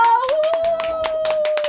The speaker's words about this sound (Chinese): 快点帮我拍拍手！